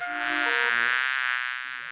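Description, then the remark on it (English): A steady bee-like buzz, a man's voice imitating a bee, sustained for about two seconds at an even, fairly loud level, with no talking around it. “He can go like a bee. Mr. Brown can buzz.”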